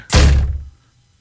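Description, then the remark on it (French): A single loud thud as someone trying to go outside bumps into a freshly washed glass patio door, a sharp impact followed by a short low rumble that fades within about half a second. No voices. “Elle venait juste de laver à la porte patio.”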